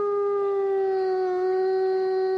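A wolf howls in one long, steady, sustained note that holds a nearly constant pitch with a slight dip, clear and prominent with no voices.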